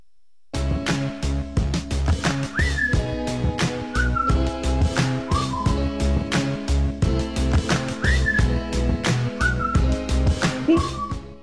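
A pop song plays with a steady, punchy drum beat and a bright whistled melody gliding over layered instruments, loud throughout, with no talking.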